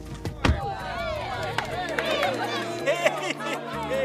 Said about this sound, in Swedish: Festen är igång. Jag räknar till 26 stycken 40-åringar som dricker rödvin och öl, minglar, pratar. Det är lite stelt ännu. Man står i små klungor. Det kindpussas, skakas hand, kramas.